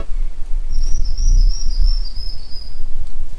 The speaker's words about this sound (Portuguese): Este é o cenário de uma pesquisa que investigou a influência da cobertura florestal em comunidades de aves como o formigueiro assobiador, que você vai ouvir agora. Preste atenção.